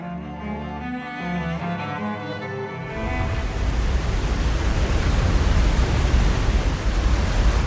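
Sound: roaring waterfall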